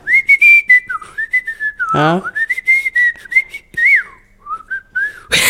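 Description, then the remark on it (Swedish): A person whistles a wandering, tuneless melody, steady and fairly loud, with brief pauses and a short burst of noise near the middle. “Okej, folk som visslar.”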